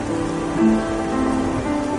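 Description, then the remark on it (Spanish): Steady rain pattering down on leaves fallen from the trees, a soft continuous hiss with no breaks, joined by faint low sustained tones humming underneath. No one speaks. “La lluvia moja las hojas caídas de los árboles.”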